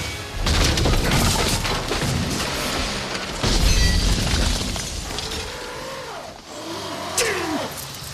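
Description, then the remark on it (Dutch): A car engine roars and whines as the vehicle skids on a muddy road at night in the rain, with loud crashing and rattling bursts over a steady wash of heavy noise, and the engine pitch sweeps up and down near the end. “Hij moet de haven bereiken, maar in de nacht en de regen slipt hij op de modderige weg.”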